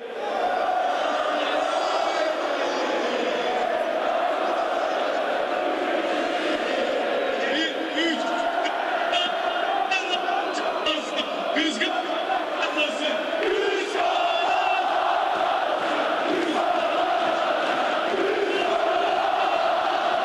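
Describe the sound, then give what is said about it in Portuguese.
A huge stadium crowd of Fenerbahçe football supporters sings an anthem together during the celebrations of the 2004 title, with the trophy lifted and a lap of honour, a loud, steady, echoing wall of voices that carries on without a break from start to finish. “Uh, vamos ouvir a torcida do Fener cantando.”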